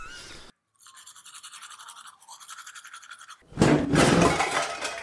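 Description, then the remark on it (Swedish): Teeth being brushed with a toothbrush: quick, rhythmic bristly scrubbing strokes that repeat steadily, then turn louder and harsher for the final stretch. No one speaks. “Det säger lite när man borstar tänderna och tuppar av av smärta.”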